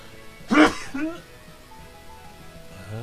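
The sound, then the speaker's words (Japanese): A single loud sneeze bursts out, a sharp, breathy blast with a brief voiced tail, followed by quiet background hiss and a faint murmur of voice. “くしゃみ”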